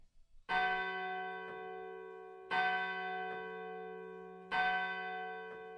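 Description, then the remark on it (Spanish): A church bell strikes the hour three times at steady two-second intervals, each deep, resonant toll ringing on and overlapping the next. No voices, just the clear bell. “En el momento en que se oían las campanadas de la hora, golpearon a la puerta de la calle.”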